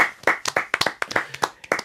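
Brief, sparse audience applause: a dozen or so sharp, separate hand claps in an uneven rhythm, moderately loud, as if from a small group, with no one talking over it.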